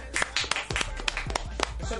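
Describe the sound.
A small group applauds the guests, with a steady patter of overlapping claps running throughout at moderate loudness, mixed with scattered voices and brief exclamations.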